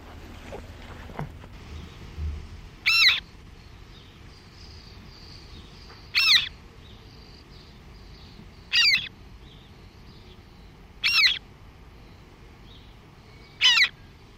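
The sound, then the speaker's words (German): A moorhen chick about five or six days old, in a small box that has just been opened, calls alone with five short, high, sharp peeps spaced every couple of seconds, clear above a faint low background rumble. “wie alt sind die kleinen Teichhühner, die wir jetzt hier haben?”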